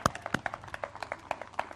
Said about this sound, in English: The Ethiopian eunuch. What a story. You can applaud. That's the word of God.